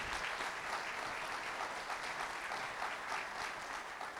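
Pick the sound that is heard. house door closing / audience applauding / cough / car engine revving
audience applauding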